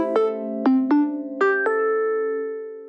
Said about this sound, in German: So klingt der Bahnhofsgong.